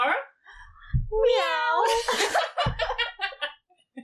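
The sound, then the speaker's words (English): A person gives a drawn-out, wavering cat-like roar that comes out more like a meow, followed by a burst of breathy laughter. “Give us your best roar.”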